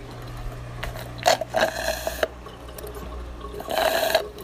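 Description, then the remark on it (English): Someone drinks a glass of water, with a few short gulping, sloshing bursts spaced irregularly over a steady low hum, and no talking. “just finished my glass of water.”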